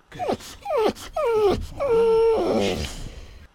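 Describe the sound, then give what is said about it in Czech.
A man sobs and wails in a series of high, quavering cries that slide downward, fairly loud, with a shaky breathy tail at the end and no words; genuine crying by a voice actor dubbing a film's final scene in which a man bids farewell to his dog before it is put to sleep. “A tam jsem, skutečně tam je můj nefalšovaný pláč.”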